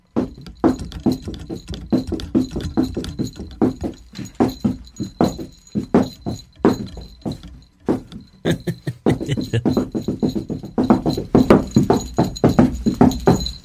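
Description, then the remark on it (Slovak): Boots stomp on the floor in a fast, driving rhythm, a folk stomping known in Horehronie as dupák, heavy thuds alternating with quicker patterns, growing louder and denser toward the end, with a faint steady high tone underneath. “To sa robí aj s nohami, že napríklad dupak my to voláme na Horehrode.”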